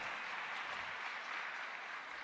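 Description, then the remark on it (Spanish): A classroom group claps steadily for a couple of seconds, a dense, even patter of many hands with no voices over it, applauding a student who solved a slicing puzzle on the first try. “Un aplauso. Lo resolvió a la primera.”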